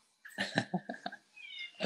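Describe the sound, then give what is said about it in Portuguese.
A female cat meows in a short run of clipped, throaty calls while being let out, then lets out a longer, higher drawn-out meow before another call starts at the end. “eu preciso abrir para minha gata fugir, que ela tá aqui.”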